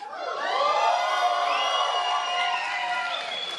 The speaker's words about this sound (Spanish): Esta es nuestra última presentación. Bueno, que se escuche ese grito animoso para que quede grabado en la historia.